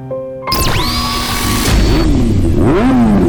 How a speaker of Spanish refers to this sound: Sonidos de motores a la máxima potencia para pegar la vuelta.